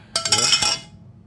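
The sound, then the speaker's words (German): Beer glasses clink together in a quick toast: a few bright, ringing contacts over about half a second, then fading into quiet. “Prost,”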